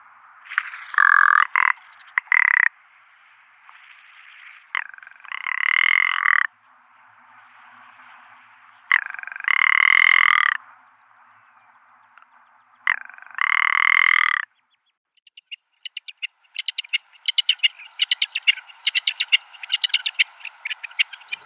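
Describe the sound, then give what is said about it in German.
A rock ptarmigan gives four loud, harsh, rattling croaks a few seconds apart, then breaks into a quick run of dry clicking notes, with no one talking. “Das Alpenschneehuhn ist im Sommer vorwiegend graubraun gefärbt, im Winter dagegen weiß.”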